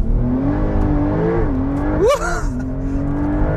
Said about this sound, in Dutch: Kan ik ook doen wat ik wil doen, wat iedereen wil doen in een 911 Turbo, namelijk launch control. Dit is de nieuwe 911 Turbo, eh, geheel nieuw motorblok. En ik, ik denk dat ik bijna mijn launch control mag doen, ja. En we gaan.